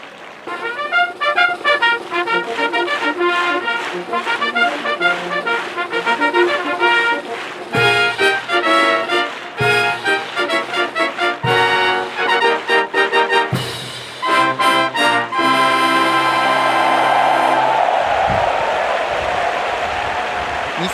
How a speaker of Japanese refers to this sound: さあスターター台上大阪杯のファンファーレです